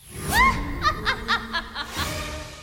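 A witch's cackle played as the cue sound for a listener call-in contest: a high, witchy burst of rapid staccato laughter, rising then breaking into a string of sharp, evenly spaced cackles that trail off, loud with no talking.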